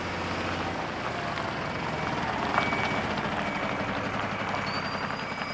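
A steady low rumble of heavy trucks fills the scene, with engine drone and faint high beeping tones, as trucks idle and move along the street outside Fryshuset in Stockholm in spring 1988.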